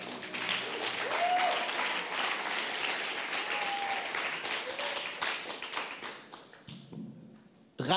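An audience applauds after a gentle musical performance, with dense, steady clapping that gradually thins and fades toward the end, a few scattered claps trailing off, with faint voices and a brief whistle-like tone mixed in.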